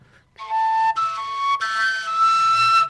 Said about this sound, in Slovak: Takže Takže to máš ten základ v tej, v tej píšťalke a to je ten súzvuk, hej?